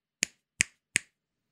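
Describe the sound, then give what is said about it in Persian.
Three crisp finger snaps in a steady, even rhythm, each a sharp bright click with a quick decay and silence between, no talking. “اما اگه چند بار پشت هم بشکن بزنید چی؟”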